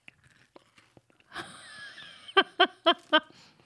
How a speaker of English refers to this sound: should I crunch in the mic or should I, I stay right? away from the mic